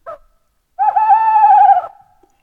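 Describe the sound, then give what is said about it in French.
An owl perched atop a tall chestnut tree gives one long, wavering hoot lasting about a second, steady and fairly loud before trailing away, preceded by a brief short note. “Alors il se pose en haut d'un grand châtaignier et pousse un superbe ululement.”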